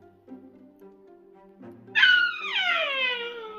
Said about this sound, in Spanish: y pidieron ayuda a los gritos tal como estamos escuchando.